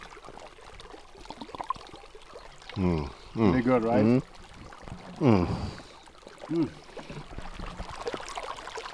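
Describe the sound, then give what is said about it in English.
A steady, rushing wash of cold, fresh stream water runs throughout at moderate level as people get water from the stream, with a few short hums and brief remarks from people layered over it. “Nothing better than getting water f- from a oh stream.”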